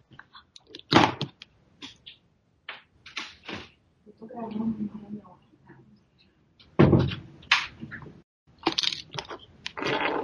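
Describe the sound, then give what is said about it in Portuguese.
Irregular sharp knocks on a door at home, made by the speaker's mother, arriving in short clusters with pauses between them, while a muffled voice talks faintly. “Peraí, só um minutinho, minha mãe tá batendo na porta aqui.”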